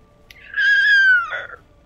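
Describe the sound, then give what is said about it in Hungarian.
A single voice imitates a Godzilla monster roar, coming out as a high, strained screech that holds for about a second before dropping off, loud, with no talking. “És üvöltök, hogy Godzilla üvöltés!”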